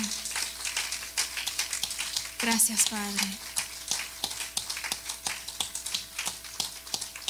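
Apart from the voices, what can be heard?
audience applauding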